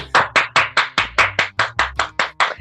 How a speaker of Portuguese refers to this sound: Sobem as palmas, aê!